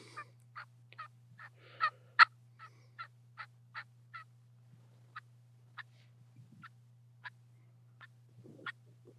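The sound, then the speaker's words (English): A turkey hunting call sounds a quick run of raspy yelps, then slows to single clucks spaced about a second apart, clear over a steady low hum. “Like I said, just those, just yelping and clucking is all you need to kill turkeys.”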